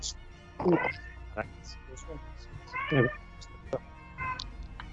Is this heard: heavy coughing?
no